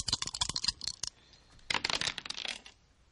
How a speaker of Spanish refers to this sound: Ahora ella tira 10 dados de 6 y veremos si saca más o saca menos. Vamos a ver.